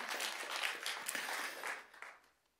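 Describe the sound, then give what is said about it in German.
A crowd applauds with dense, crackling clapping that holds steady for about two seconds, then thins out and fades away. No one speaks over it. “Applaus. Die Band kann auf die Bühne kommen.”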